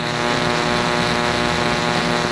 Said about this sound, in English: He trails off, replaced with a loud, harsh static. I pull the phone from my ear. A few seconds later, it disconnects.